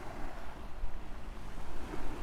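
Ocean waves wash against the shore in a continuous, rushing roar, swelling and easing in soft surges with a windy hiss, steady throughout, with no voices.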